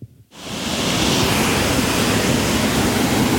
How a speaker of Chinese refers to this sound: 我们现在在一座红色的铁桥上。然后桥下是非常湍急的溪水，大家听到的应该就是溪水的声音。